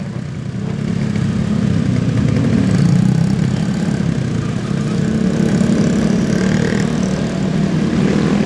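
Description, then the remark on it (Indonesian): A heavy truck carrying chickens drones steadily and loudly in slow, dense traffic on a small road on the route from Bogor to Celitan, a low rumbling idle that stays constant throughout with no voices or other distinct sounds. “udah jalanan kecil terus padat gitu ya kita di belakang truk ayam mau ngebalap susah kita nggak kebalap kebauan”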